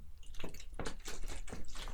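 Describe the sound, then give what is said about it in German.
Close-up wet gulping and swallowing sounds, several in a row at a steady rhythm, as someone drinks still water in big sips; no talking. “habe ich hier stilles Wasser und ich, ich, ich wie ein Pferd, wie eine Kuh.”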